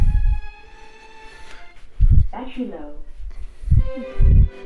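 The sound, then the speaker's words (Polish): A synthetic voice announcement that the battery is running low plays from a small Bluetooth speaker, its tones and formant sweeps standing out over a steady electronic hum, with low thumps and brief bursts of sound around it. “Niestety tutaj mieli Państwo okazję usłyszeć komunikaty o tym, że kończy się akumulator”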